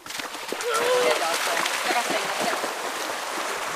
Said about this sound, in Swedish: orkar du plaska en liten stund till?